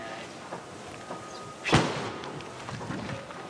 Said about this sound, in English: That was a gunshot.